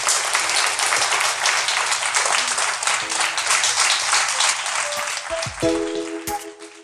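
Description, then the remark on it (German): A crowd applauds steadily for a guest, a dense wash of many hands clapping at an even loudness. Near the end, a few sustained tonal notes rise briefly over the clapping as it thins out. “Bitte großen Applaus für unseren Gast.”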